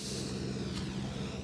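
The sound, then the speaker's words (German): A ride-on lawn mower engine drones steadily next door, mowing a park-like green area, a continuous low hum with a rough mechanical rumble and no pauses, moderately loud with no talking over it. “Ja, so ein Traktörli, Rasenmäher.”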